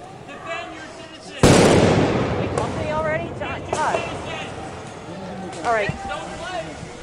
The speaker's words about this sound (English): As you can hear behind me, it's a chaotic situation. We have flashbangs going off as uh, federal law enforcement uh, officers have started engaging with the crowd